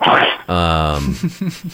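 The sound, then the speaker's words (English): A dog named Tailgater sneezes once, a short, sharp, breathy burst, followed right away by a person laughing and murmuring a few words. “Tailgater just sneezed.”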